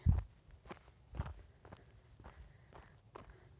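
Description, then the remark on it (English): Steady footsteps crunch along, about seven or eight paced strides over a few seconds, with a slightly heavier first step and a quiet outdoor background, no one talking; a person hiking up a hill to a bench behind an apartment complex, overlooking a valley. “I hiked up to the bench behind our apartment complex.”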